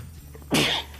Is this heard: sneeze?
yes